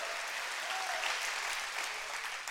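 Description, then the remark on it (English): An audience claps to the Lord during a sermon in a steady, dense wash of applause, many hands overlapping with no distinct individual beats, holding at an even, fairly loud level throughout with no one speaking. “Clap to the Lord, not to me.”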